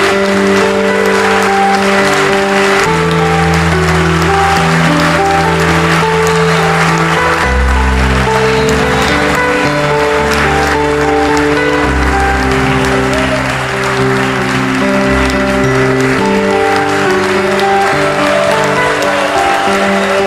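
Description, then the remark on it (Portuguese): A church audience at Igreja 100% Família claps steadily and loudly for the full stretch, a dense, unbroken patter of applause over sustained, slowly changing keyboard chords with a deep bass tone underneath. “Quem crê, dá um aplauso para Ele que dá isso para você.”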